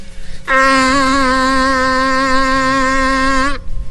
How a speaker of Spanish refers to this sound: Pues sí, eh, señor. déjeme, le presento nuestra bubucela para despedirlo. ¿Cómo suena la bubucela para Colombia?